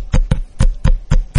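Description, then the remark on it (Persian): A fuel card being shaken rapidly in front of a microphone, producing six sharp rattling flaps in a quick, even rhythm, loud and crisp with no talking over it. “این صدای کارت سوخت ماست خوب گوش کنید قراره دیگه نشنوید صداشو”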